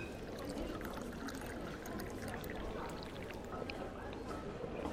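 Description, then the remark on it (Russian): Water is poured steadily to drink, a continuous splashing trickle that holds for several seconds with no talking. “Господи, сори, надо попить.”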